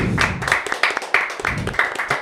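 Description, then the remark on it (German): Several people clap their hands in a brief round of applause congratulating someone on a new baby, the claps sharp and uneven, loud and crowded together with a faint murmur underneath. “Jetzt haben, Jetzt haben wir wahrscheinlich die Ohren von allen Zuhörerinnen und Zuhörern zerrissen mit dem Klatschen.”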